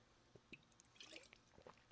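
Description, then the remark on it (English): Quiet sipping of water: a few faint wet slurps and small liquid clicks, then a sharper, louder gulp or clunk at the very end. No one speaks. “And I need a sip of water.”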